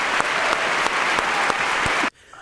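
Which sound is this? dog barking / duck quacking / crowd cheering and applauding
crowd cheering and applauding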